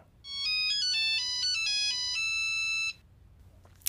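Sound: nokia mobile phone ringtone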